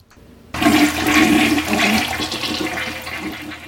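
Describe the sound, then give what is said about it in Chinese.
A toilet flushes with a sudden loud rush of water that starts abruptly, then gurgles and swirls, gradually easing off toward the end. No one speaks. “谢谢你借我们厕所，你的厕所很棒哦。”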